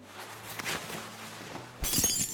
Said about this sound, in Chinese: 伸手抓住手边的茶杯，就要往齐白羽的脸上砸。手中的杯子被齐白羽伸手一把夺下，狠狠的往地上砸去